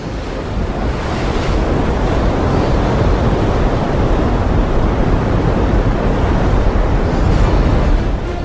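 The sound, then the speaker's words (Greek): Loud, continuous roar of churning ocean water with crashing waves and gusting wind from the giant Maelstrom whirlpool in the Norwegian seas, a dense, turbulent wash of sea noise filling the whole clip without any voices. “Μαζί με τον Νέτ και το σύμβουλο θα προλάβει να διαφύγει, καθώς το σκάφος θα παγιδεύεται στην πιο καταστροφική γιγάντια δίνη Μάλστρομ των νορβηγικών θαλασσών.”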